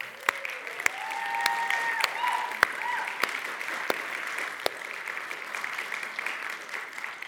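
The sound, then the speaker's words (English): Steady audience applause for the moms, grandmas and godmothers present at a Mother's Day event, a broad wash of clapping with sharp individual claps popping out, holding at an even level for several seconds. A faint voice drifts underneath near the start. “And can we just give it up for them right away?”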